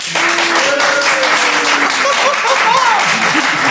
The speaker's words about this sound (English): I want you to, to purchase that product with your applause. So think about which one of those you, you, you felt more compelled to buy. So uh, if you want to purchase bread, clap now. And if you want to purchase water, clap now.